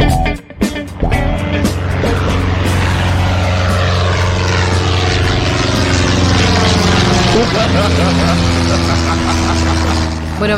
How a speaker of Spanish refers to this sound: vamos a viajar por el mundo en una avioneta de cuarta categoría, porque ese motor, la verdad, viejito, no está funcionando bien.